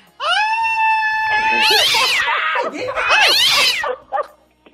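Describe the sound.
A cat lets out a long, steady meow, then breaks into louder, wavering yowls tangled with people's voices and noisy commotion before trailing off.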